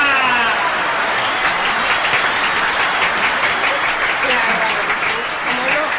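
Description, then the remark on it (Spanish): A crowd applauds steadily for several seconds as the organizers of a raffle are introduced, a dense, even wash of clapping hands that stays loud throughout, with faint voices mixed underneath. “¿Cómo los aplauden?”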